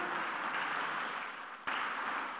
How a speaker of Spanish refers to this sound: Denle un aplauso al Señor, por favor, en esta tarde.